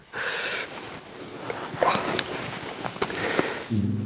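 Soft breathing and snoring of a female pet fast asleep on a person's lap: airy, wheezy puffs and little snorts repeating unevenly, with a low voice starting at the very end.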